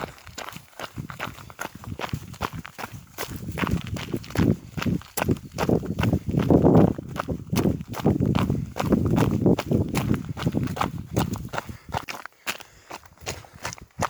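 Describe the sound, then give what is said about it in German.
Steady footsteps crunch downhill along a long, stony forest road, a regular rhythm of gritty scrapes and thuds with no talking, briefly pausing near the end before resuming. “geht es nun am langen Weg einer steinigen Forststraße bergab.”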